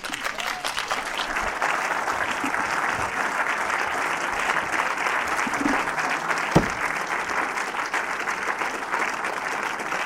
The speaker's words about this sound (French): On n'a pas entendu vos applaudissements.